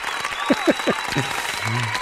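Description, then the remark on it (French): A crowd applauds steadily for about two seconds, a dense wash of clapping, with a few brief voices rising over it. “On t'applaudit quand même.”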